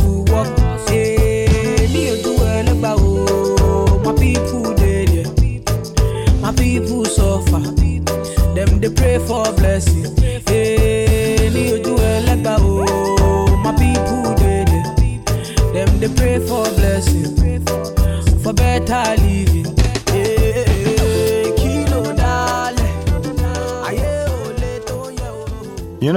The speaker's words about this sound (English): So here's the more, well, let's say, pop side of Naija pop.